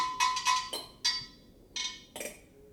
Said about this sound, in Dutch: En er zijn ook, en dat zijn de grootste objecten, dus ik ook een paar kleinere, zijn de keramische elementen. Die hoort u nu ook klinken.